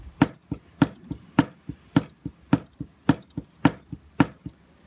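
Ukulele strumming in a steady eighth-note (8-beat) pattern, downstrokes on the beats and upstrokes on the off-beats, each downbeat stroke deliberately louder and brighter than the softer upstroke between, about eight accented beats in a row, with no talking.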